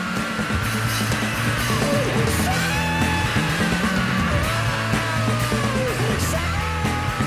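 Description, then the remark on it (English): A raw, strained male scream at the end of a rock song rides over loud, distorted rock instrumentation, sustained and ragged across the full stretch as guitars and drums pound underneath. “even a song like … when he's like screaming at the end of it”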